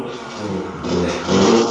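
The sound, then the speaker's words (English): A motorbike engine revs loudly, its buzzing roar building toward the end of the short burst as it passes by, with no talking over it. “It's some asshole on a motorbike.”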